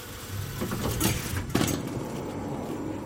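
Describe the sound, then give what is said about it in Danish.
A door high up near the nose of a rocket slides open with a soft mechanical whoosh, rising in two airy bursts before settling into a steady low hiss, with no voices. “Og så højt oppe, tæt på snuden, der er der nogle døre, man kan åbne.”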